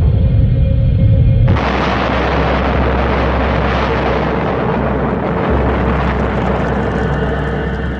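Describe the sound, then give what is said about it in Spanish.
A deep, heavy rumble suddenly bursts into a huge, roaring explosion that stays loud and dense, like a massive blast rolling on without fading, with no voices; the Tunguska explosion in Siberia on 30 June 1908 at 7:14 a.m. “La región de Tunguska contempla la mayor explosión de la historia de la humanidad.”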